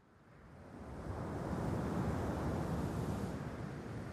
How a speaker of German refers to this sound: Der Wind frischt auf und pustet sanft über die stille, kühle See.